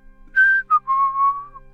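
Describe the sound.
A short, bright whistled tune of three notes: a held high tone, a quick higher chirp, then a longer lower note that dips slightly, clear and fairly loud with no talking.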